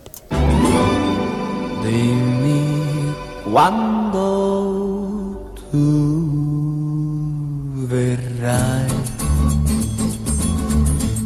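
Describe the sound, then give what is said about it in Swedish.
A male Italian singer sings a very popular Italian pop song he wrote himself, a bright melody with sustained, vibrato-rich notes over a full band backing, the music steady and loud throughout. “Det är en italiensk sångare som jag ska spela som har skrivit en låt som har blivit väldigt, väldigt populär.”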